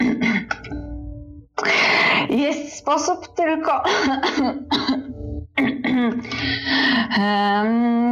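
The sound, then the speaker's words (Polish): A woman coughs a few loud, harsh times at the start, then begins speaking steadily over a faint background. “Głośno kaszle i mówi:”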